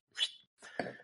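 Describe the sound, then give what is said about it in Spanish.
A sneeze in two quick bursts: a sharp, hissy intake-like burst followed after a brief pause by a fuller, noisier expulsion, moderately loud with no talking. “Salud.”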